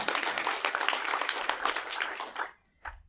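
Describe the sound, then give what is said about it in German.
A crowd at a celebratory church service applauds the band loudly with dense, rapid clapping for about two and a half seconds, then it cuts off abruptly, followed by a brief faint sound before silence. “Vielleicht nochmal einen fetten Applaus für euch.”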